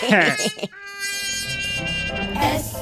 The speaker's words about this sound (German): Warum summen Bienen? Weil sie ihren Text vergessen haben.